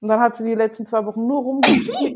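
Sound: sneeze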